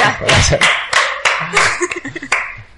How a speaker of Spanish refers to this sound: Pero bueno, vamos a darle un aplauso, ¿no? Creo yo, yo qué sé.